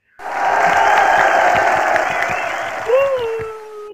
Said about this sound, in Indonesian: aku apresiasi banget sih buat paskip kita tepuk tangan lagi buat paskip